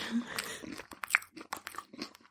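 Close, crisp crunching of a snack being chewed, a run of sharp irregular bites and crackles lasting a couple of seconds, with no talking over it.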